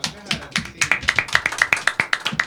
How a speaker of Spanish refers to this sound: Bueno, fuerte el aplauso.